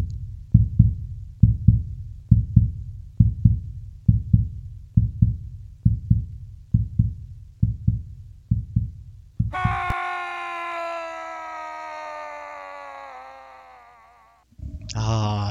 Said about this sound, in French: Je vois ton cœur battre. Tu l'entends-tu toi aussi?